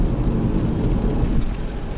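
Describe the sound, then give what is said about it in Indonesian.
Steady, loud low rumble of a car cabin on the move, with a soft constant hiss of rain on the outside, continuous and unbroken throughout, no voices. “sekarang kayak sekarang nih saya buat podcast ini sambil ngapain sambil nyetir mobil lagi hujan-hujan”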